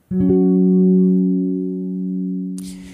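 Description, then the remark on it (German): A single gong strike rings out with a deep, steady resonant hum that slowly fades over a couple of seconds before cutting off abruptly into a brief burst of noise. “Liebe Grüße auch an unseren Gong, denn nachdem hören wir uns wieder.”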